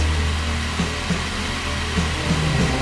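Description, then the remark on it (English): An early battery-powered cordless drill fitted with a half-inch spade bit whirs steadily for a few seconds, a low motor drone under a rough grinding hiss, with no voices. “So she's in her house looking for her family, and her dad's got like a fucking drill with like a half inch spade bit on the end.”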